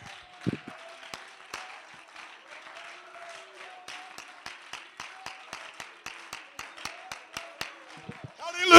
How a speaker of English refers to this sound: Somebody clap your hands to the Lord tonight.